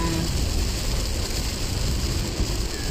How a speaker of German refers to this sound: Also, es regnet gerade sehr stark. Entschuldigung, wir heben die Stimme.